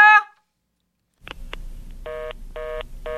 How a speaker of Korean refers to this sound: 이렇게 부사장님의 내선 번호는 분명히 뜨는데 받으면 어디다 전화 걸듯이 버튼 누르는 소리만 나고 그러다가 또 또 또 하니까 얼마나 황당했겠어요.